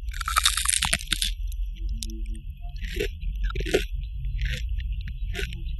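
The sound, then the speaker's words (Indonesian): Crunchy eating sounds recorded while eating, for an Instagram story: a burst of loud crisp crunching, then several shorter bright crunches spaced out, each a sharp crackly bite or chew, with a steady low hum underneath and no talking. “pas gue makan abis itu gue rekam Maksudnya.”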